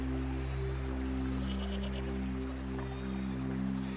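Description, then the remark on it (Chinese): Sheep bleat in a long, wavering, nasal cry that holds steady for several seconds at a moderate level, with no talking. “跟着我的声音一起，默默地细数着每只羊的品种。”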